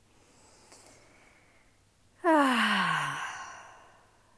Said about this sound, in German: Mir gelingt das am besten, wenn ich atme, wenn ich einen tiefen Atemzug nehme. Und zwar tief in den Bauch zu atmen. Das tief in den Bauch atmen.